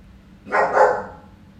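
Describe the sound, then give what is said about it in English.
A single bark from the speaker's dog, Riley, moderately loud, lasting about half a second with a brief drawn-out tail, alone against a quiet background. “That's that's my dog.”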